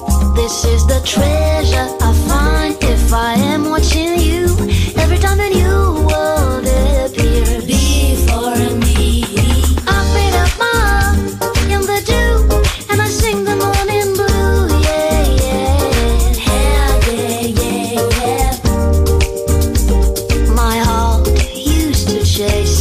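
A warm Afro-Latin modern band plays steadily, with a full, dense mix of deep bass, rhythmic percussion and melodic instruments, loud and continuous throughout without pauses.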